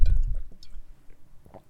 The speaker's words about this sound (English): I had to just experience the um, the gulping of it, even though I'm not particularly thirsty. Uh, it's good to stay very hydrated.